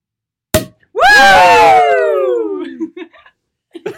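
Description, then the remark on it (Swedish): A sparkling wine cork pops with one sharp crack, followed at once by a loud, excited voice exclaiming in a long falling cry, then a few faint clinks. “Det viktigaste är att den gör ett trevligt ljud när man öppnar den.”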